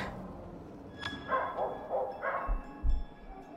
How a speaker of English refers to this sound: Gee, it sounds like someone unleashed their dog feel like it's getting closer. Am I crazy, or is that dog way too big to be a dog?